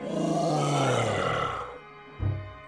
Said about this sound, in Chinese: 阳光在幽灵身上烧穿了一个洞，幽灵发出了足以让血液凝结的恐怖尖叫声。